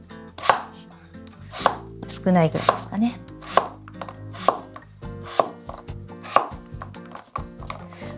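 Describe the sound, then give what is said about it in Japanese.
A knife chops a cucumber, already quartered lengthwise, from the end into small chunky pieces on a cutting board in steady, sharp knocks, roughly eight evenly spaced cuts about a second apart, while a woman speaks briefly partway through. “さあきゅうりが縦4つ割りにできたら、え全部いっぺんには無理ですけど少しずつですね、え端から切っていきます”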